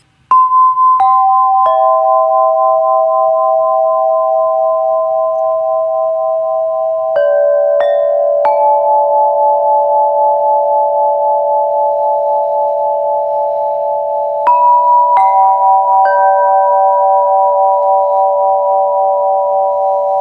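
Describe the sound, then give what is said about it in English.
Harp notes plucked in three small clusters of two or three, each ringing out into long, steady sustained tones that overlap and hum on between plucks, played with a pulsing tone suited to a theta brainwave state; no talking. “So there's just a little sample of how the harp can sound.”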